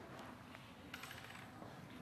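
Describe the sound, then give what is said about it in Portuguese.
Coins drop and clink in a quick, irregular scatter of light metallic taps, with a brief cluster in the middle, soft against a quiet background with no voices. “As moedas são minhas.”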